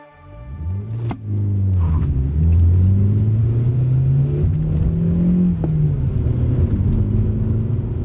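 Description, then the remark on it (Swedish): A car engine revs hard and climbs steadily in pitch as it accelerates with the gas pedal pressed to the floor, loud, with a low rumbling drone underneath and no voices. “Foten pressade hårdare på gasen trots att pedalen redan var fastklistrad mot golvet. Fartmätaren tickade uppåt”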